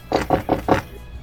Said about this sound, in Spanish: Y golpeó la puerta bien simpáticamente.